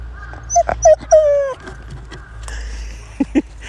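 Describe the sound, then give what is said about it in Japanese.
A dog named Toichiro, with powdery snow on its nose, whimpers in a series of short, high, whiny cries while begging for a biscuit, three in quick succession and then two more after a pause, over a low steady background rumble, as powder snow falls. “お、統一郎君はうん、鼻に雪つけて粉雪つけてうんおやつ欲しいのかビスケットうんビスケットをねだってるのかビスケット欲しいの”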